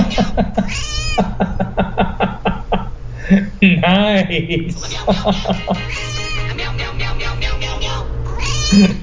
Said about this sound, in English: Funny cat alert tone. Meow, meow, meow. Meow, meow, meow, meow, meow, meow, meow.